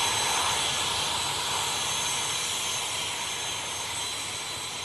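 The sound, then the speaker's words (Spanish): A steady, loud airplane engine roar with a broad rushing hiss and a faint high whine, holding level for about five seconds with no voices, as a plane flies to Las Palmas de Gran Canaria. “Y ahora sí, nos vamos volando hasta Las Palmas de Gran Canaria.”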